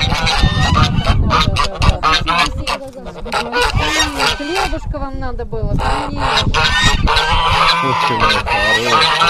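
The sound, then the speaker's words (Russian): A flock of geese coming out to meet visitors honk loudly and continuously, their harsh overlapping calls filling the scene while people talk briefly underneath. “Вот Нам встречу вышли гуси, которые громко кричали, но особенно близко старались не подходить.”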